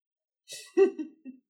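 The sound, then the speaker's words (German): A person clears their throat: a breathy rush followed by three short, gravelly rasps in quick succession, with nothing else around it. “Räuspern ist wichtig. Was raus muss, muss raus.”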